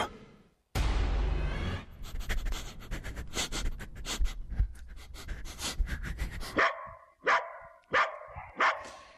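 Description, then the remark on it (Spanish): A dog in Minnesota pants heavily amid scuffling noise, then lets out a series of four or five loud, sharp barks in quick succession near the end, with no one talking. “Es el perro de nuestra historia sonora de hoy, que tiene que ver con algo que está pasando en Minnesota.”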